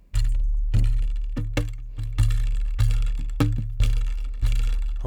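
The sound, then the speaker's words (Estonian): A low-pitched wooden string instrument plays a steady run of plucked notes, each attack bringing a small metallic clamp rattle and buzzing clicks as the tones ring and decay. No one speaks. “jaa kuule, aga kõlab ju väga hästi ja see väike klambri klõbin andis minu arust isegi ju natukene juurde jah, natuke sellist hi-hati või sellist põrget juurde onju.”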